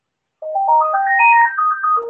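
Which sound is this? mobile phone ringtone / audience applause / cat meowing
mobile phone ringtone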